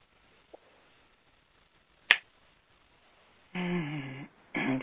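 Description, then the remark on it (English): A single sharp finger snap rings out after a fainter click, marking the end of a guided exercise, then a stretch of quiet before a person starts talking. “When you feel comfortable, you can open your eyes and snap your fingers.”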